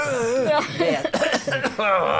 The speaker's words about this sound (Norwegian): Hvæser og hoster.